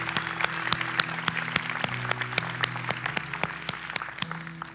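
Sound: audience applauding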